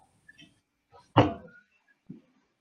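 A door locked from the inside is unlocked and opened to let an administrator in: a few light clicks, then a sharp, loud metallic clunk of the latch, followed by a softer thud a moment later.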